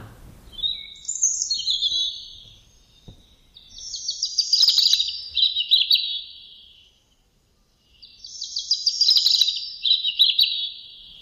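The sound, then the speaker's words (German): A songbird sings alone in clear, bright phrases, several bursts of rapid warbling and trills that run on without a clear start or end, moderately loud. “Es ist eher so eine, es ist so durch. Total. So, aber super, aber sehr schön. Also super es ist ein schön. ganz schöner Gesang.”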